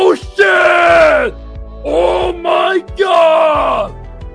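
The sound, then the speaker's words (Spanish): A man's voice lets out three loud, strained screaming cries in a row, each drawn out and falling in pitch, imitating an anime character's cartoonish anguished scream. “Pero sus gritos serían tipo ¡Oh no! ¡Oh!”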